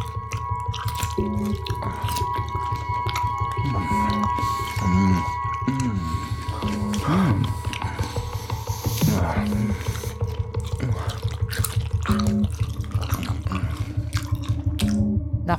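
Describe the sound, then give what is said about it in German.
Wet squishing and sloshing as a man's fingers work through pickles (Essiggurken) in brine in a jar he has just opened, with soft irregular squelches and small drips over a steady low hum, moderately loud and without any talking. “Er öffnet den Deckel und spürt sofort das angenehme Nass an seinen Fingern.”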